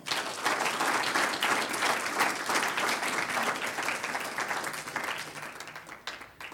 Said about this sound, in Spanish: Amén. Un aplauso al Señor.